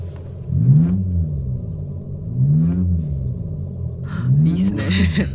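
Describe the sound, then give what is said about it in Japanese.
A low, droning synthetic engine rumble from a car's sound generator, which plays an engine sound outside the car, swells and dips in pitch three times like steady revving, with a brief higher-pitched rattle near the end. “なのでまずそのサウンドジェネレーターの音をお聞きください。”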